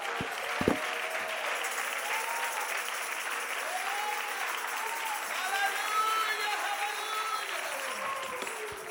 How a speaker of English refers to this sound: Come on, clap your hands to Jesus now.